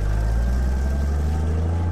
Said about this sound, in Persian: حتی نذاشتن من یه جمله بگم در ماشین رو بستن و ماشین با سرعت دور شد